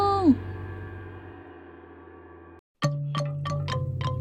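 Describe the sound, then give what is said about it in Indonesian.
A gong is struck once in a music shop, its deep tone wavering and then ringing out in a long, slowly fading hum. After a brief silence, a run of quick, bright struck notes follows. “Gong ini bunyinya mendengar.”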